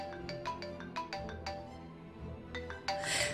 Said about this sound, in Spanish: Con el poco valor que me quedaba, me empeñé en encontrar el móvil y llamé desde mi teléfono fijo para arrastrarlo a través del tono.